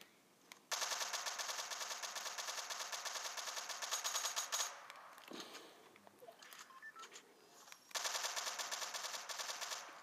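Rapid automatic fire from an MK7 rifle in a video game, two long sustained bursts with a brief choppier pause between, loud, with no talking.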